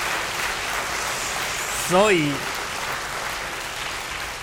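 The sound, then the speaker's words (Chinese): Steady audience applause fills the whole clip as an even, dense patter of many hands clapping, with a man's voice briefly speaking a word over it midway. “所以要听好听的演讲啊，要鼓掌啊，是不是？”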